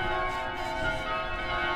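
The bells of Riga Cathedral in Riga, Latvia ring out steadily, their overlapping tones sustaining and blending into a continuous shimmering peal, with a faint low rumble of distant car traffic underneath and no voices.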